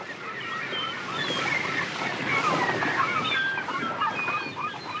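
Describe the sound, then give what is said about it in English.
Steady outdoor waterside ambience at the Seaview Marina in Wellington, aboard a moored 40-year-old fishing boat, with a constant wash of water and wind, scattered bird calls and faint squawks rising and falling throughout. “I'm at the Seaview Marina in Wellington aboard the Conquest, which is uh, a 40 year old fishing boat based here in Wellington.”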